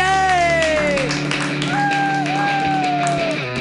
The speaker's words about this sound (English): All right, clap yeah, wildly.